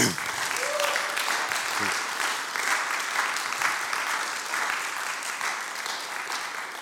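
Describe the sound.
Steady audience applause fills the whole stretch, a dense, even wash of many hands clapping at constant loudness, with a brief voice heard near the start.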